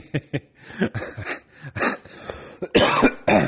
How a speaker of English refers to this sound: I just wanted to interrupt you so I could cough.